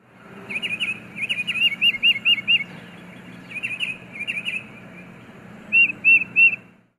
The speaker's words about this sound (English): The tufted titmouse, for example, is a songbird whose antiraptor warning cries send squirrels and chipmunks running.